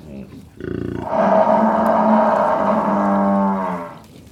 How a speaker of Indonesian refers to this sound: Ini suara kerbau.